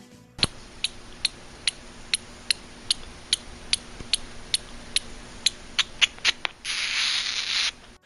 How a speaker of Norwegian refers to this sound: Men hvem kan slå dem alle, da? Den lille brune flaggermusa. Sånn høres den ut.